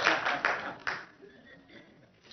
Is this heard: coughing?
no